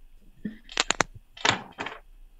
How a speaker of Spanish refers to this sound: ¿Vas a abrir la puerta? sí.